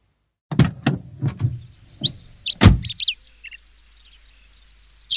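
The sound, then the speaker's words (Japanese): A van's sliding door rattles and clunks open in several quick bursts as people get out of the van, then shuts with one loud slam. Birds chirp softly in the background afterward, with no talking. “ワゴン車を降りて急な坂道を歩く。”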